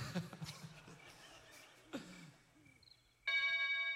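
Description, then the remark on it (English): A loud, bright electronic doorbell chime rings out near the end, sustained, after a stretch of muffled rustling and brief throat-like vocal noises. “how many y'all have people that come to your door and they ring the doorbell more than once?”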